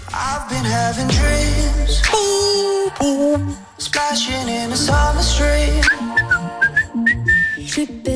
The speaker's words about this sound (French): C'est ici, siffle un moment.